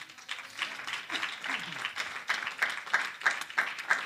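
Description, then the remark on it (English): A crowd claps their hands unto God in a dense, sustained burst of applause, moderately loud, settling into a steadier rhythmic clapping toward the end. “Can we clap our hands unto God?”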